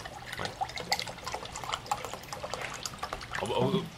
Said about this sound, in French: Ben, tu, peux attendre que je te serve euh, un petit verre d'eau.